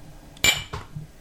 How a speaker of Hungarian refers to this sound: Egészségedre. Egy kocintás is legyen benne.